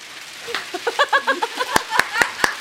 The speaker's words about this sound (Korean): 지금 저희가 소정의 상, 어, 서, 사은품으로 준비한 그 견과류 봉투를 흔들고 계시는데 네. 방송국에서 이 정도 효과 잡아낼 수 없어요.